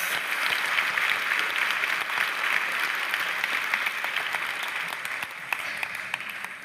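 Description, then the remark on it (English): A large theater audience claps steadily for the speaker's wife, daughter, family and friends, a dense wash of applause sustained throughout and tapering slightly toward the end, with no voices standing out. “Please help me give them a hand as well.”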